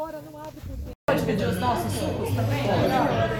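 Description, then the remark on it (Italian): A busy restaurant hum of many overlapping voices chattering at once, steady and fairly loud, broken by a brief silent cut before the crowded babble resumes. “Dopo circa 30 minuti di macchina siamo finalmente arrivati al ristorante.”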